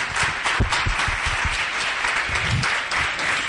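Steady, dense applause from the audience at the Congreso Ciencia y Espíritu fills the whole stretch, many hands clapping at once in a continuous roar with no breaks and no one speaking over it.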